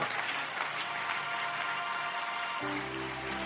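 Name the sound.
audience clapping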